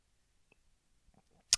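A quiet sip of coffee from a cup: soft mouth clicks and faint swallowing noises, ending in a short, sharp slurp. No one speaks.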